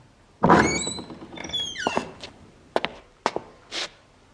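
A door is opened with a thunk and a drawn-out squeaky creak of the hinges, followed by a few sharp knocks and clunks as it swings and settles.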